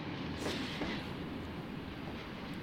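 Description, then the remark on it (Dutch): A train rolls along the rails with a steady, loud rumble, a couple of faint clacks from the wheels near the start, and no voices. “De grens tussen Frankrijk en Spanje was toen nog open, dus de kans is groot dat hij met de trein naar het zuiden is gereisd.”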